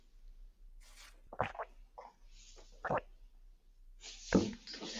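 Someone takes a small sip of water: a few short, wet slurping and swallowing sounds with brief pauses between them, fairly quiet, with no talking.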